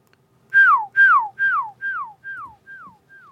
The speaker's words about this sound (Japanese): 一応口笛もできるんですよ